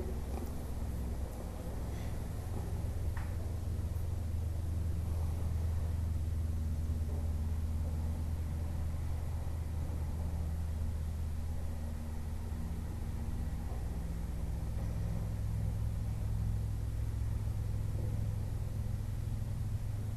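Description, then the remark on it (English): A tractor engine drones outside, a steady low rumble that holds constant for the whole stretch, with no voices over it. “There's a teaching, the Kuan Yin teaching is that in listening to sound, listening to the tractor outside, turning into the one that's listening, turning the listening back into the self nature.”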